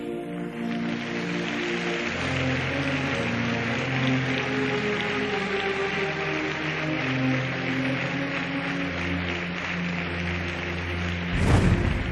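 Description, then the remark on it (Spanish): An audience applauds in a steady, dense patter that lasts throughout, over sustained low keyboard chords that shift pitch, ending with a brief louder burst. “Damos un aplauso, Rey.”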